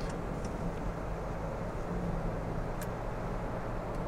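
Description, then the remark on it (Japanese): A steady, low engine-and-road rumble fills the whole stretch, riding inside a moving car with an internal combustion engine, with no voices and only faint higher ticks now and then. “この車が僕は内燃機関のエンジンに乗る最後かなって一応思ってはいます”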